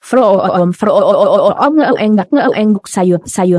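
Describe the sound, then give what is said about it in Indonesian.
A voice mimics an approaching car engine with rising, rumbling vocal revs in a few loud bursts, with no other sound around it. “terdengar suara mesin mengarah mereka.”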